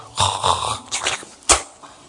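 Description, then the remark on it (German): A voice mimics someone spitting on the ground: a few raspy, throaty hawking bursts followed by one sharp, crisp spitting burst near the end, fairly loud with no speech. “Er sagt, ja, er spuckt auf die Erde.”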